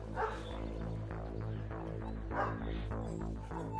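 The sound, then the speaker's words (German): A search dog barks excitedly, several sharp barks and yips spread across the moment, over a steady low droning hum in the background, as its handler puts on its search harness to start a training exercise to find a person playing a missing hiker. “Er legt ihm sein Suchgeschirr an, das Signal für den Hund, dass die Suche beginnt.”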